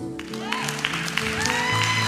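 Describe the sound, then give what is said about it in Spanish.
A church audience claps hands in praise to God for about 30 seconds, a dense, steady wash of sharp claps over sustained musical tones and a few voices, moderately loud throughout. “¿Alguien pudiera darle por unos 30 segundos una alabanza de palmas a su Dios?”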